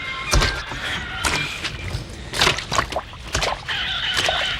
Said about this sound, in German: Und? Wie sieht's aus? Die Räder stecken im Schlamm fest.